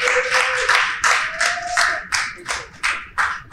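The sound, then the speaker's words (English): An audience claps in a steady stream of sharp, loud bursts, roughly three per second, with a thin sustained tone briefly running beneath the first couple of seconds. No one speaks. “So make some noise for that one time, man.”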